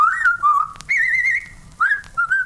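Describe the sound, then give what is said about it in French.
A whistled melody of La Marseillaise, the French national anthem, clear, in a few sustained phrases with short breaks and sliding pitches between notes, and no talking. “Allez, tous Éternue La Marseillaise”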